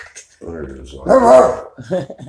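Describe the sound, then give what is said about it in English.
A man's voice imitates dogs barking and growling, giving a few gruff, throaty bursts that rise to a loud snarl in the middle before tapering into shorter growls. “Just look clean, and just let me walk in there, motherfucker, and watch how the dogs come to barking and growling and. Rawr, rawr, rawr, rawr.”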